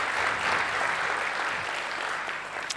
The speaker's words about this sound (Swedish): Eh, kan inte de få en applåd?